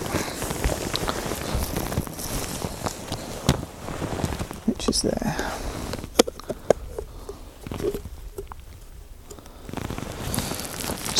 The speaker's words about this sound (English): But to get to the pinhole lens, I've got to take all this off this rain cover.